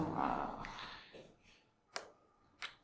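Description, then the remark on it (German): Two crisp ballpoint pen clicks, spaced about a second apart, as the pen is readied to note a level-up in a card game, following a soft rustle of movement and breathy noise. “Ihr hört den Stift klicken, der mein Level-Up jetzt notieren wird.”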